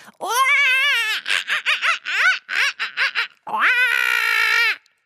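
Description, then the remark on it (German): A group shouts together as loudly as they can while drumming their fists on their chests: a long sustained yell, then a choppy, stuttering stretch of short bursts, then another long drawn-out yell before the sound cuts off. “Dabei schreien wir alle zusammen ganz laut”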